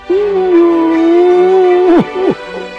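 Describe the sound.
A person, voicing the story character Goraska, howls wordlessly like a dog in one long, steady, fairly loud wail, then breaks off in two short downward-sliding yelps. No words are spoken.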